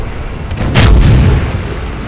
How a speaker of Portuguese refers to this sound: Canhões trocavam disparos a queima-roupa por centenas de quilômetros de planície poeirenta e de destroços escurecidos as maiores forças blindadas que o mundo já vira arremetiam uma contra a outra.